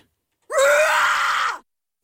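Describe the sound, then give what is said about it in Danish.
A single loud, angry human scream with a rough, roaring edge, lasting about a second, alone in silence before it cuts off abruptly. “Jamen altså, så lad os tage det første skrig.”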